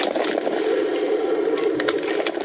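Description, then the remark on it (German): A classic filter coffee machine brews filter coffee with a steady hiss and murmur as water brews through the top and coffee slowly drips down, broken by small irregular pops and crackles as water gurgles. Moderately loud, with no one talking. “Das ist so eine klassische, weißt du, oben ist dieses Brühding, also oben brüht es durch. Und jetzt tropft, glaube ich, so langsam der Kaffee rein.”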